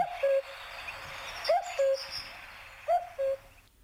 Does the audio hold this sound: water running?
no